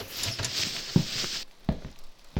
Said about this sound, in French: Mais pour l'instant, il pleut comme vache qui pisse.